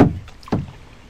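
Two splashy strokes of a kayak paddle cutting through water on a waterway with a weir ahead, each a sharp wet slap that trails off into dripping as the paddle pulls water up out of the water, about half a second apart. No one speaks.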